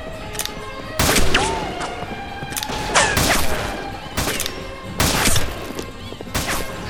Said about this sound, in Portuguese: Pelos deuses, como é que eu vou fazer isso no meio desse fogo cruzado?